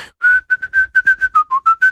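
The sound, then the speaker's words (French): Someone whistles a brisk, galloping classical overture theme: about a dozen short, clear notes in quick, bouncing rhythm, mostly on one pitch with a brief dip, no talking. “Et donc quand j'étais petit, quand j'avais 12 ans, et je, je commençais déjà à savoir un peu de la musique classique, je sifflotais ça avec mes copains.”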